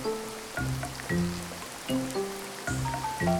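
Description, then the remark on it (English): Steady, dense hiss of heavy rain pours continuously in a storm during a game, with a blustery edge of wind, while a low melodic tonal pattern repeats underneath. No one speaks. “The rain and wind do seem to be picking up.”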